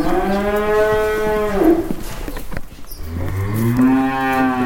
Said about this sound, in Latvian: Uz izsoli jau savesti gaļas lielopi no visas Latvijas.